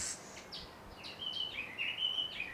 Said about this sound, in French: Ici, j'ai un jardin. Il y a des tourterelles, des ibis qui croassent et de petits oiseaux jaunes qui construisent leur nid suspendu aux branches.